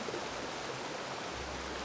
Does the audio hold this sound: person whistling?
no